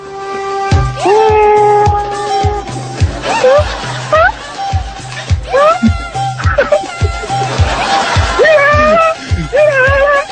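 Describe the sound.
A voice imitates a kitten with a string of high, wavering meows, sung over a steady, thumping music beat. Snickering laughter breaks in toward the end.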